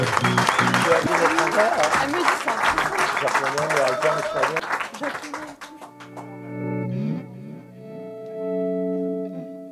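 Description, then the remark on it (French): Audience applause at the Blues Café, a dense, steady crackle of many hands clapping over music for about five seconds, then fading away as sustained tonal notes and a voice carry on. “les applaudissements euh, du public du Blues Café.”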